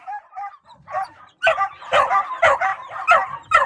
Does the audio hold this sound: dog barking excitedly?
yes